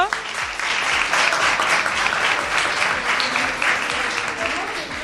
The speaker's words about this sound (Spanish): Un fuerte aplauso.